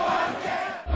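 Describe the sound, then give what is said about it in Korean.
At a Korean professional football match on Children's Day, Suwon Samsung Bluewings fans packed behind the goal roar, cheer and sing chants in a dense, sustained wash of voices, with a deep rumble surging up at the very end; the first vocal cheering allowed in two years. “박수만 가득했던 경기장에 다시 힘찬 함성 소리가 울려 퍼지기 시작했습니다.”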